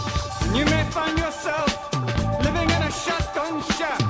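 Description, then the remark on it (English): A song plays loudly and continuously, with a wavering melodic lead over a steady, full backing and low bass notes, and no one talking over it. “I have no idea what that music is.”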